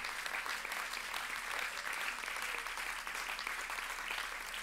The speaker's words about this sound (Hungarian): Most úgy tapsoltak, úgy tapsoltak, mint esne az eső. Ott is hallom, itt is hallom.